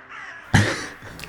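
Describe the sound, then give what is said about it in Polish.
A raven gives a loud, harsh caw, followed a moment later by a shorter, fainter call, with no voices around. “I wszędzie są kruki.”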